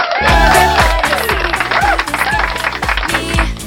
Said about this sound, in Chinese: 那么，先手续，今天我们来了是一个好久不见的老听众啊！那我们热烈的掌声欢迎他！